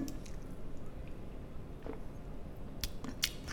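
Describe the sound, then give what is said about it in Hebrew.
A woman quietly sips from a glass of water, two small slurps and swallows with soft wet mouth clicks over a steady low background hum, no talking, in a fairly closed room with the window shut and the air conditioner running. “והנה, יש לי כוס מים, אם אני עוברת קצת, אני לוגמת שנייה, תשמעו.”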